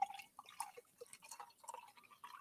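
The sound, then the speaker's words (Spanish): A Zángana frutos rojos drink with a red cap being poured into a glass, a burbling run of liquid with bright, bubbly glugs and drips that rise and fall in pitch over a couple of seconds, fairly quiet and with no voices. “Oh, qué bien suena, ¿eh? Incluso al, el caer.”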